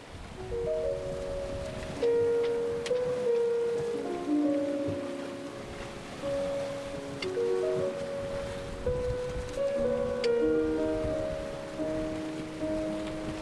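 Sea water rushes and splashes steadily against a sailboat's hull at sea at 7°8′N, 50°32′W, on the 13th day of sailing from Cape Verde to French Guiana, at 1 p.m. under a hot sun, with someone steering from the stern. A continuous wash with some faint tonal sounds drifting over it. No one speaks.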